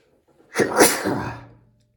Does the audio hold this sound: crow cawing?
no